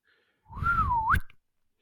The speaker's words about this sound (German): Also pass auf, ich fange mal an. Also ich ja. pfeife, aber so, ich meine so ein sanftes Pfeifen, okay?